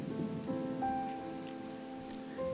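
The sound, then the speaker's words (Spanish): Steady rain patters on a hard surface in a dense, continuous hiss, with soft sustained tones humming beneath it throughout and no voices. “Ha llovido durante días, ha habido vientos y malos climas, pero las semillas ya han empezado a crecer.”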